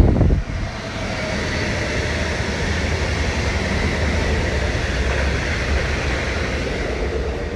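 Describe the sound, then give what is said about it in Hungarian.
A train rolls past with a loud, steady rumbling roar that holds for several seconds, a thick wash of low rumble and hiss with no voices over it. “Szóval ja, most elmegy ez a vonat,”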